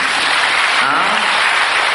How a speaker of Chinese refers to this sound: 讲到这个地方，你怎么不鼓掌呢？